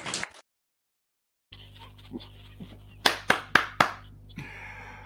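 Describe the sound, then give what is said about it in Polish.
Audience applause for Jesus after a man's pain went away begins with four loud, sharp claps in quick succession, followed by a softer wash of many hands clapping together, with background hum and murmur. “Bo na tyle skończymy, bo na tyle jest widzę wiarę, ale ból przeszedł, więc brawo dla Jezusa.”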